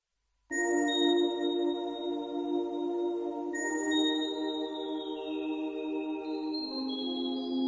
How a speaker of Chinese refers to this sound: 我有一个风铃，是朋友从欧洲带回来送我的。风铃由五条钢管组成，外形没有什么特殊，特殊的是垂直挂在风铃下的木片儿。薄而宽阔，大约有两个手掌宽。